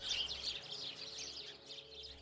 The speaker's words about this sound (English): In this release of 160 small birds, they're numbered 80 English sparrows. The newspaper The Farmer's Journal and Gardener's Chronicle approvingly reported that the birds were all, quote, strong on the wing.